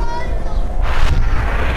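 Heavy gunfire and artillery shots boom over a constant low rumble, with two sharp bursts close together near the end. The blasts sound loud, like an active combat zone.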